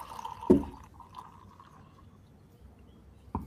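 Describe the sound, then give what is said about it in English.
KBS beer, a Mackinac, pours into a glass with a soft, steady liquid gurgle, opened by a sharp clink and closed by another brief knock. Fairly quiet, with no talking. “So, since since I just poured myself a uh, KBS Mac, Mackinac,”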